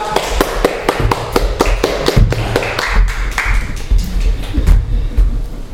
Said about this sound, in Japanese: はい、えー、この辺でお席に戻りましょうか、ね、はい皆さん拍手でお送りください